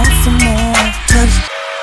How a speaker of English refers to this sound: Ooh, hey, watch out for that lucky train.